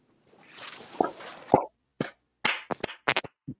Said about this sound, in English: I am sorry for anyone watching or listening to this on Spotify who just had to hear me clap into the microphone, but that was amazing.